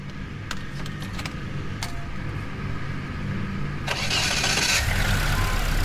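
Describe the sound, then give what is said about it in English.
A few sharp metallic jingles of car keys ring out, then a car engine cranks with a loud burst and settles into a steady low idling rumble. “De ting fanger du, og så afsted til lokationen i din bil.”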